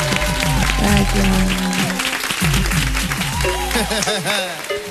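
Sustained audience applause, a dense wash of clapping that stays loud for the full five seconds, with tonal cheering or melodic sounds running through it.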